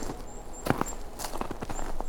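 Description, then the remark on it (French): Footsteps crunching through snow: a quick, uneven series of soft, gritty crunches, fairly quiet, with no voices, over a faint steady hiss and the odd thin high whistle. “Entendez-vous le manteau de neige Entendez-vous notamment toute cette mosaïque de sons, toutes ces nuances Le son de la neige, c'est un peu comme si vous ouvriez”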